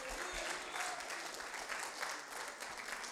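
crowd, audience clapping hands

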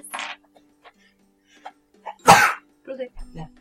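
human body sound, sneeze

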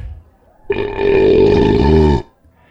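human body sound, belch

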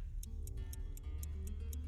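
household object, pocket watch ticking

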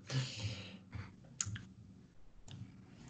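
household object, computer mouse clicking

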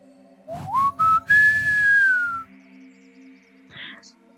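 human body sound, person whistling a melody

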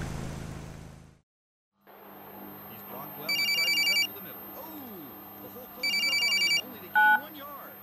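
signal or alarm, telephone ringing

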